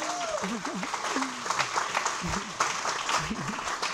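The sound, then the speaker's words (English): An audience clapping, a steady dense patter of applause with excited voices and cheers rising over it, fairly loud. “Can we applaud that?”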